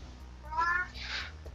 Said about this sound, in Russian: Кот категорически вот не согласен. крики там.